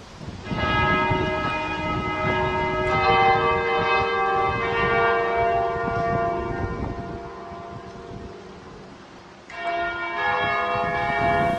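The large bells of Liverpool Cathedral ring out the slow melody of a song in 2009, each stroke leaving rich overlapping harmonics that hang and decay before the next strikes, with fresh strikes near the start, middle and end.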